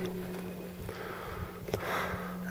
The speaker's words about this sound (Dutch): En dan kom je bij een kleine spleet van 30 centimeter. En dan sta je uit te hijgen. Dat doe je dan allemaal zonder zuurstof.